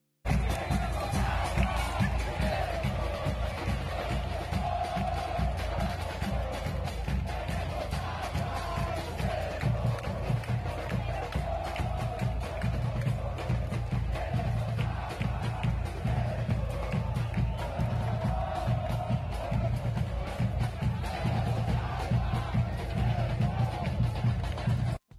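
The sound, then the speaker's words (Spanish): A large group of football supporters chants "Tenemos agua y ustedes no" together in unison, loud and sustained, with a steady rhythmic beat like drums or stomping underneath and crowd noise throughout. “este video que quiero que escuchemos, que la verdad me, me dio mucha risa, que es una barra, una porra de un equipo de fútbol, parece ser de los Santos, y escuchemos lo que tienen que decir.”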